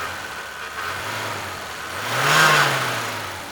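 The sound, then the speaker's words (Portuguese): A homemade car engine being tested idles roughly, then revs up in a single rising surge around the middle before settling back to a steady drone. It is loud, with no one talking. “Que barulho horrível é esse? Estou testando a minha máquina.”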